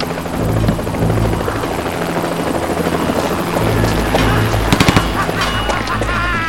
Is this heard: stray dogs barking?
no